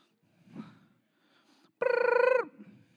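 A cell phone rings once in a loud, rapidly warbling electronic burst lasting under a second, standing out clearly against an otherwise quiet, faintly murmuring background.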